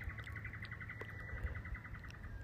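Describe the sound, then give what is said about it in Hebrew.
Birds give a steady, rapid series of high chirps that repeats across the whole stretch, fairly quiet, outdoors in nature during a morning walk, over a low rumbling background hum of cars. “בטח תשמעו את הציפורים ברקע, וגם תשמעו מכוניות ברקע.”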